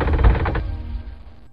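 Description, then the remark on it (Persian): A heavy door swings open with a loud, rough grinding rumble lasting about half a second, followed by a low, fading resonance as it settles. “خب بچه داریم به دروازه کوه نابودی نزدیک میشیم بذاری من فقط این در رو باز کنم”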